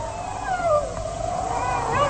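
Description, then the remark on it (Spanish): Several wolves howl together at night in long, rising and falling overlapping wails, sustained and fairly close, filling the whole stretch with a steady eerie chorus. “Ay, y esos aullidos son cada vez más impresionantes y, se oyen cerca.”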